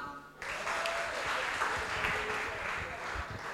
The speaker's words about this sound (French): Aujourd'hui, on va aller dormir un peu plus tôt. On applaudit pour ça.